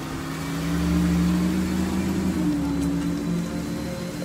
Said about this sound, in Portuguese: E tá começando a fazer uns barulhos aqui. Vamos, pera, só um carro passar e também a gente passar aqui esse barulho.